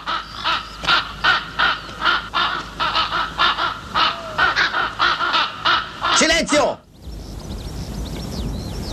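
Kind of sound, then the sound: bird, crows cawing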